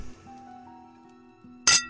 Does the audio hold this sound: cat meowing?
no